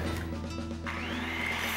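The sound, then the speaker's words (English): A brand-name power tool from Eagle Hardware, used by Edgar Martinez to make a light bat, whirs steadily and loudly, its motor pitch rising partway through into a sustained high whine, with no voices. “Well, once again, Edgar Martinez is using Eagle Hardware's incredible selection of brand name power tools for his latest project.”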